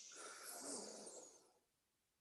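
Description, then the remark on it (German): A long, deep breath drawn in audibly through the nose during a yoga breathing exercise while the arms are raised over the sides, a steady airy rush lasting about a second and a half, fairly loud, then quiet. “Und dafür einfach die Arme über die Seite nach oben in der Einatmung.”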